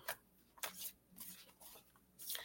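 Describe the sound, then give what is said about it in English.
A deck of oracle cards is shuffled for a card reading, with several quiet, brisk bursts of papery riffling and brief pauses between them, and no voices. “Um, let me shuffle these.”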